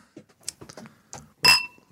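A single bright clink of glasses touching in a toast, ringing briefly before fading, preceded by a few soft murmurs and small handling sounds.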